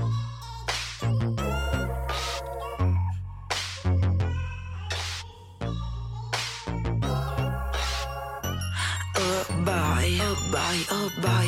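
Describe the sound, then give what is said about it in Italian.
A pop song's intro plays loud, with a steady thumping bass line, sharp rhythmic hits and bright melodic synth layers building continuously with no talking. “E io metterei la canzone.”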